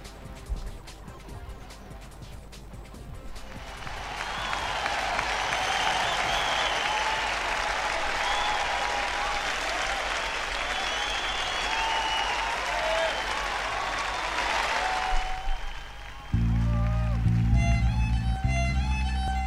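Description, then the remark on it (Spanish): A crowd breaks into loud, sustained applause that swells in and continues steadily for about ten seconds, then cuts off as a short bright musical jingle begins. “Y cuando llegan los aplausos es porque llega mucha comida.”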